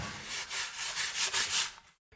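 A small arching plane shaves violin wood in quick repeated strokes during violin making, a bright rasping whoosh with each pass, steady for about two seconds before stopping abruptly.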